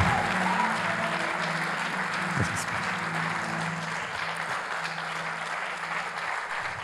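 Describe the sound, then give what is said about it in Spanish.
An audience at a worship gathering claps loudly and steadily to give glory to the Lord, a dense wash of applause lasting about seven seconds, with low sustained musical tones humming underneath and a faint voice briefly audible. “Entonces démosle gloria al Señor, demos un aplauso fuerte porque Él está en medio nuestro y dispuesto a revelarse.”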